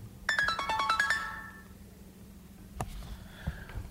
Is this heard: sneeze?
no